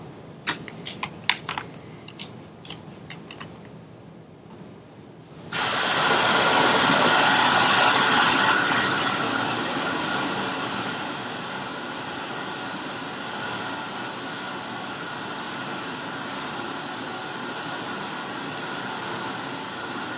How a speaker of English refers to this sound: and what I saw was just raging rapid after rapid. So I actually have a quick clip, and I want you guys to watch it. And just consider like crossing this river by foot, because I can tell you from experience that it wouldn't be easy at all.